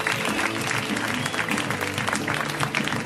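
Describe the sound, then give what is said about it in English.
Steady, dense applause from an audience as comedian John Roy is introduced, a continuous wash of many hands clapping, with a faint murmur of crowd voices underneath. “He can even hear you if you clap.”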